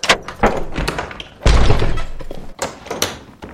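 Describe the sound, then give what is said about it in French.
Heavy thuds and bangs against a door as police force it open, one big crashing impact in the middle, with scraping and rattling around it, loud. “Ouvrez Ouvrez cette porte ou nous l'enfonçons Qui est là Police”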